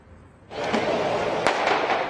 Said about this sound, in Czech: Ohňostroje nikoli na oslavu zahájení Evropského samitu, ale proti němu. Náměstí před bruselskou budovou Evropského parlamentu se dočasně změnilo v hořící barikádu.